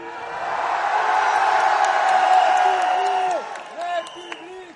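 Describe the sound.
A large crowd roars and cheers in a dense, sustained wash of voices, with scattered whoops and shouts rising above it before the clamour thins out near the end.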